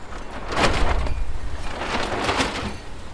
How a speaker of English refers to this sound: Pulling at the tarpaulin which keeps the rain out for them.